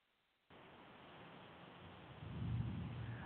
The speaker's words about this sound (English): Uh, we're having a very heavy tropical storm here in uh, Panama, in the mountains where I live, and so that caused a temporary disconnection.